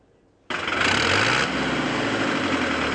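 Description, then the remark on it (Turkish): A municipality's heavy diesel tractor engine suddenly starts up loud after a brief quiet moment, then runs steadily with a rough, rumbling drone and a slight change in pitch partway through, as the tractor ploughs a struggling farmer's field. “Belediyemizin traktörüyle zorda olan çiftçimizin tarlasını sürmekte.”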